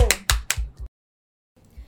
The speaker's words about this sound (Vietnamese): Chúng ta dành một tràng pháo tay để tiếp đến với phần tiếp theo.